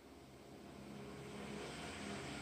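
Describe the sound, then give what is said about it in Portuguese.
A bus rumbles past outside, its engine drone and broad road noise swelling slightly, with a low steady hum underneath and no voices. “vai passar um ônibus.”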